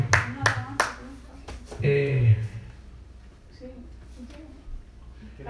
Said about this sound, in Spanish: Ese aplauso para ti